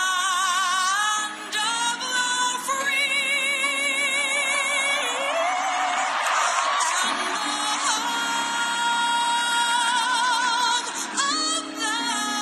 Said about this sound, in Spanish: público de pie, con los dos puños arriba, gritando